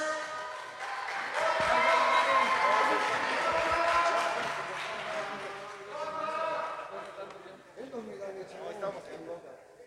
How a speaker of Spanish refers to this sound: aplausos, señores.